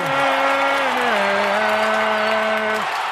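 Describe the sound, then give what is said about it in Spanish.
Steady, dense applause from a standing audience fills the whole stretch at an even loudness, with a long held note sung a cappella by Manolo Lama riding over it and dipping slightly before cutting off near the end. “Fuerte aplauso para Manolo Lama.”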